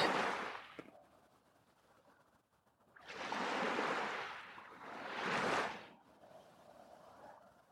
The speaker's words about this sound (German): Lass dich für einen Moment treiben von den Wellen. Die Wellen nehmen gleichzeitig deinen Stress und deine Sorgen mit.